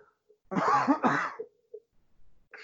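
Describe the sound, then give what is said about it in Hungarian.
A person coughs hard twice in quick succession, loud, choking after swallowing a little water the wrong way, followed by a brief gasping breath. “Na most nem, nem a drámai hatást fokozandó csuklik el a hangom, bár a téma is elég komoly, most félre nyel képzeld el itt”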